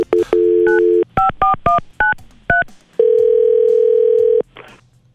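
A phone call being placed to Sound Machines, a stereo and audio business: a steady dial tone, a quick run of about six keypad beeps, then one long, loud ringback tone, with no voices.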